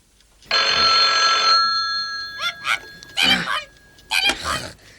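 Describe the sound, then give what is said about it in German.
A loud telephone bell rings in one sustained burst of about a second, followed by a few shorter, choppier sounds with brief pauses between them. “Die drei Detektive saßen in ihrer Zentrale als das Telefon klingelte.”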